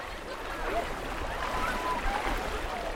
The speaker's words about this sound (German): Ablaufendes Wasser in einem Priel zerrt an ihren Beinen. Der Priel ist einer der vielen kleinen und großen Ströme, die das Wattenmeer durchziehen.